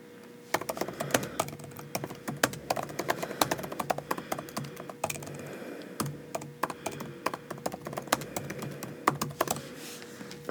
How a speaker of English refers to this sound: I'm gonna look it up really quick just to confirm the name. Listen to the keyboard ASMR for a second.